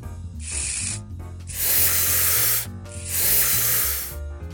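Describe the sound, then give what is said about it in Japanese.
Helium gas hisses from a canister in three loud bursts, a short one followed by two longer sprays, over a steady low tonal background, as someone takes helium to speak in a funny voice. “あ、ヘリウムヘリウム。”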